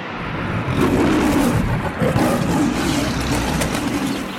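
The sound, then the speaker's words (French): A lion roars loudly, one deep, rumbling roar that swells and holds for several seconds with no voices present. “Il ouvrit grand la gueule et poussa un rugissement qui plia les baobabs, souffla le sable en tornade et souleva un typhon dans les temps.”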